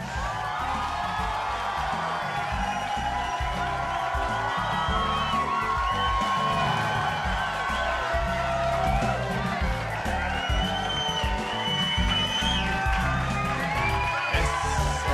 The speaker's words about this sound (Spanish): bastante impresionante que ustedes todos estallan en aplausos justo cuando yo diga, cuando yo digo viernes. Yo no sé cómo. Es una buena sincronización que hay entre nosotros.